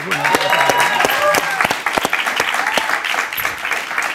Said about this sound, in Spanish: Gracias, un aplauso a él.